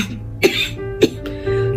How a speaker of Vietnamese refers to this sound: Tiêu Kỳ Lan ho khụ khụ vài tiếng